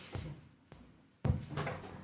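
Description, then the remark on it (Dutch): A front door is unlatched and pulled open for someone at the door with a package: a couple of sharp clicks, then a louder thump followed by a rush of rustling noise as it swings. “Sorry, er staat iemand voor mijn deur met een pakketje.”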